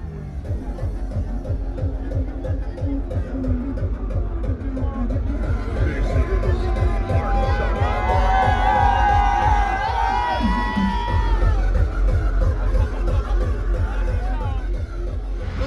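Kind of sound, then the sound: ambience, crowd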